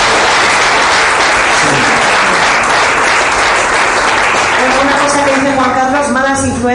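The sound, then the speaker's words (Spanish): An audience bursts into loud, sustained applause for the Lord, a dense wash of clapping throughout, with a voice calling out over it near the end. “dame un aplauso al Señor por el regalo que nos ha dado.”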